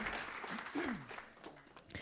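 audience applauding

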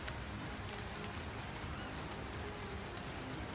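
rain falling

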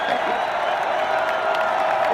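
crowd cheering

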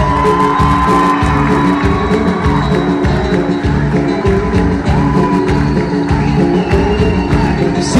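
audience applause and cheering

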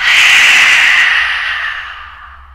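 forceful exhalation

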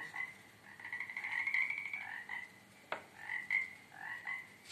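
toads croaking

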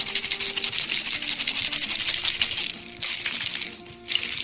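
ice shaken

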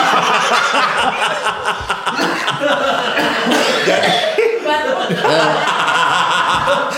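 coughing

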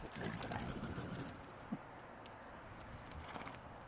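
horse

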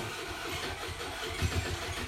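motorcycle engine running nearby

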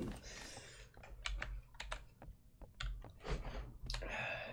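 computer keyboard typing

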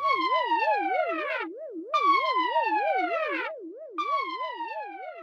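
alarm siren sound effect

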